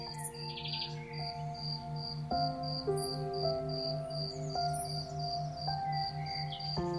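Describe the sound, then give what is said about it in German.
A green grasshopper chirps at very close range, its wings vibrating hard to make a steady, rapid chirping that pulses through the whole clip, a high buzzing trill repeating evenly, with sustained tonal hums underneath and no one speaking. “Du siehst, wie die Flügel des grünen Insekts heftig zittern, während der Grashüpfer sein Zirpen damit erzeugt.”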